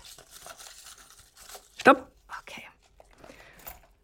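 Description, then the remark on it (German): Dry paper rustling as a hand digs through crinkly paper slips in a bag to draw one, in irregular bursts with one sharper crumple partway through, and a faint whisper underneath. “Ich greife mit der Hand rein, du sagst Stopp und dann sagst du mir, was du von diesem Begriff hältst.”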